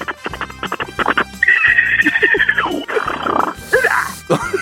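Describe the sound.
A person imitates a zebra's call with their voice in a voice-impression contest on Park Myung-soo's Radio Show: a run of rapid, rhythmic barking grunts rising into a loud, strained braying whinny, forceful, ending in breathy gasps.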